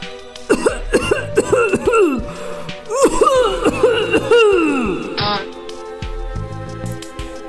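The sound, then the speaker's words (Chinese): A field mouse stuck inside a dead, hollow tree stump coughs hard: a run of forceful, throaty coughs in quick bursts, then a longer fit, each with a ringing, humming echo from the stump. “田鼠克拉拉卡在枯树桩里很难受，它忍不住使劲咳嗽，树桩里发出了嗡嗡的回音。”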